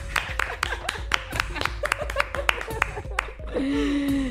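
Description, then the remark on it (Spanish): A few people clap in a steady, fairly quick rhythm, applauding themselves and wine, with voices and laughter mixed underneath; the clapping stops and a voice carries on alone. “Muchas me encanta, me encanta, me encanta aplaudirnos a nosotras y al vino.”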